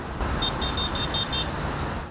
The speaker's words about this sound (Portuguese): O percurso é embalado por arranjos de motores, muita buzina.